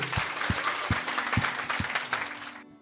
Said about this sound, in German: Ein Applaus